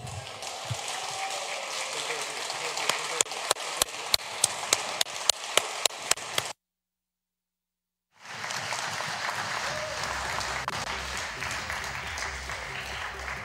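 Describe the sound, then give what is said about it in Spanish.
Congress members applauding the approval of a constitutional reform of a fundamental right: a dense wash of clapping with sharp, evenly spaced claps standing out, then a short break of silence before steady applause resumes. “Y es una reforma de un derecho fundamental, por lo que creo que nuestros aplausos podrían ser un poco más entusiastas, señores congresistas.”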